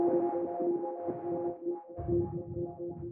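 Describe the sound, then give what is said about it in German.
A sustained granular synthesis drone, with the sub-oscillator removed so only the grains are heard, steady tonal layers and a grainy, fluttering texture, blended with noise being added that makes it rougher and thicker in the lower range toward the end. No voices. “Jetzt gebe ich mal Rauschen rein.”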